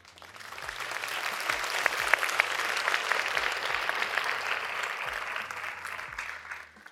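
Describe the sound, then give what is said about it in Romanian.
A room full of people applauds steadily, a dense wash of clapping that swells in quickly, holds for several seconds, then fades out near the end. “Mulțumesc mult de aprecieri.”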